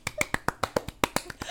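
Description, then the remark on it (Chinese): About eleven quick hand claps in a steady, fast rhythm, each a sharp, bright slap of similar loudness, with no talking. “拍手，太开心了，你知道吗？”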